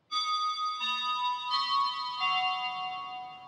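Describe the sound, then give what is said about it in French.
A front-door doorbell chime plays a four-note melody of bright, ringing tones, each note sounding in turn and lingering into the next before slowly fading. No one speaks. “J'ai pas encore pensé au son que ferait ma sonnette d'entrée.”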